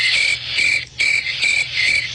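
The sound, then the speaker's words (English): A steady chorus of crickets chirps loudly and continuously, with pulsing trills repeating about every half second and a brief dip partway through. No one speaks. “Uh, uh, uh, they put in the crickets.”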